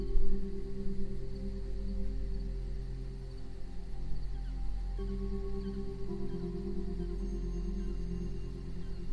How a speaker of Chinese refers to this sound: 此刻，在你听到我说话声音的同时，这样的低频双耳节拍就在背景中静静地播放着，来帮助和引领你进入到更加深层的松弛空间。